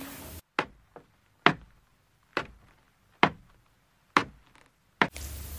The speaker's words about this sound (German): Langsam wurde es Mitternacht. und man hörte Treppen steigen.